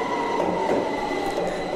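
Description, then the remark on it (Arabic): A metro train rolls in, a loud, steady rumble with a thin metallic squeal of wheels on rails running through it. No voices are heard. “مترو الأخبار اللي واصل بس لوين رح يخدنا يا ترى”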